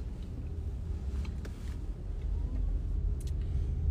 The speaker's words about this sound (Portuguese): Tô aqui é, no carro.